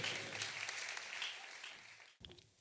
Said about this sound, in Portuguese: Confira aí. Senhoras e senhores, uma salva de palmas